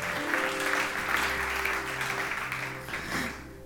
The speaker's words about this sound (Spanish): Y a mí dale un fuerte aplauso su Dios, casa de Jesús.